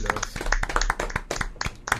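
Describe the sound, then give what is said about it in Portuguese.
A round of applause from a small group, many hands clapping in a dense, uneven patter at moderate volume, with faint voices mixed underneath. “Acho que antes acabámos uma sala de palmas”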